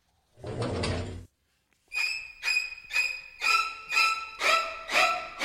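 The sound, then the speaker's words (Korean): A sliding paper door is rasped open in one smooth pull at night during a thunderstorm, then a run of seven quick, evenly spaced squeaky scrapes follows, fairly loud, with no voices. “그날 밤 난데없는 천둥 소리에 놀라서 깼는데 책문 밖에 어른어른 뭔가 비치길래 번개가 쳐서 그런가 하고 열어봤는데요.”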